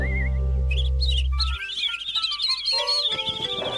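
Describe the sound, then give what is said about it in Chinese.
A small bird chirps in quick, high, warbling runs that continue without pause, over a low steady hum that cuts off partway through. “哦哦，你看起来好像不太高兴，你怎么不叫了？”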